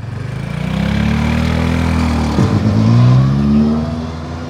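A car being push-started: the engine labors and rises in pitch, stutters abruptly as the driver releases the clutch, then catches and revs up strongly, loud, with no voices.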